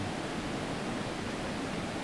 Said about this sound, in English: This living sound of the river has been here for more than 12,000 years, completely and totally and utterly uninterrupted.